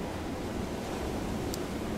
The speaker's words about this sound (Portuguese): Mano, eu falei que podia chover, né, olha aí. Chuvinha boa. Começou a chuva aí.